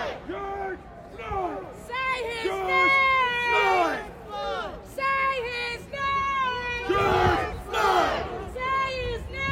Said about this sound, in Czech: Slyšíte tu spontánnost, kdy se vlastně ty lidi orientují, jako by, kdyby byly kapela. Že se takhle domlouvají, že ona bude předspívávat jedna a druhá bude reagovat.